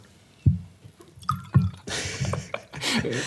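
A drink is poured into a glass: a few soft knocks and drips, then a steady splashing gurgle of liquid that swells and runs on to the end.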